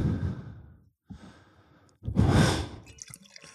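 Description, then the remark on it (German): Soft, close breathing: a few gentle exhales and inhales, with a longer, fuller sigh-like breath in the middle, no talking, quiet and intimate near the microphone. “Ich mag dieses leichte Atmen, was ich von dir hören kann.”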